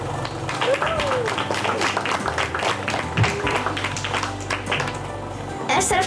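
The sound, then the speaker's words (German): An audience applauds the premiere of a film made in a workshop, a steady, dense patter of many hands clapping for several seconds, with voices and laughter mixed in throughout. “Applaus!”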